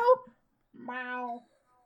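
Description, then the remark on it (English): A brief vocal sound, then a short pause and a drawn-out, nasal meow from a human voice imitating a cat, fairly loud, fading into quiet. “Meow.”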